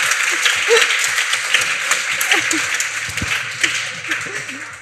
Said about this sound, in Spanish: Que aparte ha llegado puntual, incluso siendo el director sí, ha llegado antes. un aplauso.